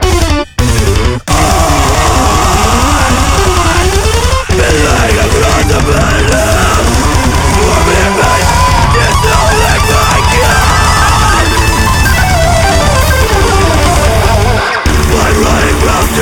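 Loud, dense heavy music plays continuously with harsh yelled vocals over distorted, wall-of-noise instrumentation, broken only by a few brief dropouts near the start and again near the end.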